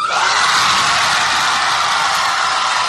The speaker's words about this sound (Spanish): en el vídeo, en el vídeo se ve cómo los alumnos pues saltan de sus asientos, estallan aplausos. Ya les escuchamos.